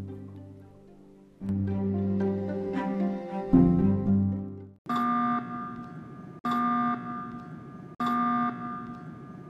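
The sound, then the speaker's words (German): A ship's leak alarm blares in three long, steady electronic tones with short gaps between them, following a few seconds of shifting musical-sounding tones. No voices are heard. “Ein merkwürdiger Ton ertönte die ganze Zeit. Es war wohl der Alarm für das Schiff, wenn es ein Leck hatte.”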